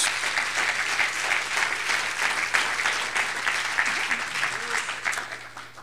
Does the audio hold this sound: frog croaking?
no